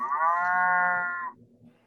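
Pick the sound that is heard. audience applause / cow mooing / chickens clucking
cow mooing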